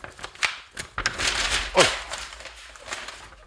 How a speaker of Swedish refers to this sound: lyssna! Alltså ni hör papperna, alltså, det är hur många? Det är, det är 30, 40, 50 förslag här alltså.